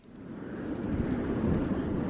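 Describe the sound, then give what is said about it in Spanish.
A steady, roaring wind fills the space, low and blustery, building slightly in strength over a couple of seconds with no voices. “el viento,”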